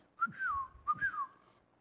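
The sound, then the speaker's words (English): Someone attempts to whistle, producing two short, slightly wavering phrases, each sliding up and then dropping in pitch, with a breathy, faltering tone and no talking. “I can't whistle this morning.”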